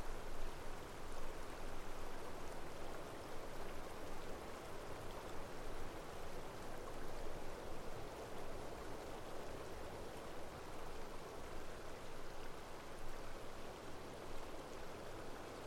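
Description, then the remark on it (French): Spring water splashes steadily over rock and runs into a stream, a continuous, dense babbling rush with no voices or pauses. “Vous pouvez entendre sa douce mélodie, l'eau jaillir de la source et rebondir sur la roche avant de couler sagement dans un ruisseau.”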